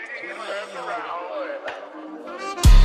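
A French rap track intro: a wavering, melodic vocal sample hovers for a few seconds, then a loud, heavy bass-driven beat slams in right at the end.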